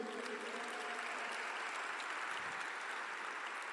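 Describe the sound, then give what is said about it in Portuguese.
A church audience claps steadily in the name of Jesus, a dense, continuous wash of many hands applauding at an even loudness throughout, with no speech over it. “Então aplaude ao nome de Jesus aí.”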